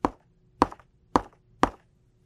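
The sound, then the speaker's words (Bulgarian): A woodpecker pecks on wood in a forest: four sharp, hollow knocks, evenly spaced about half a second apart, clear over a faint low hum, with no talking. “Тръгнала меца, но тука чула калвачът да чука.”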